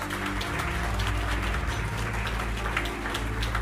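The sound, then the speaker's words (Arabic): A large crowd of leaders and heads of state applauds warmly and steadily in Beijing in mid-May 2017 as Chinese President Xi Jinping stands to address them on the Belt and Road Initiative, a dense wash of many hands clapping at once, with a low droning hum underneath and no voices heard. “وسط تصفيق حار وقف الرئيس الصيني شي جين بينغ في منتصف مايو ايار عام 2017 مخاطبا عددا من القاده والرؤساء في العاصمه الصينيه بيجين ليعلن عن احدث انجازات مبادره الحزام والطريق”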